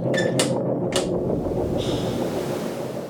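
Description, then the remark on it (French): A heavy mechanical door, opened with a button, slides open with a steady grinding rumble, punctuated early by a few sharp metallic clanks and ending in a faint high whine as it moves. “Putain, il y avait un bouton pour ouvrir la porte.”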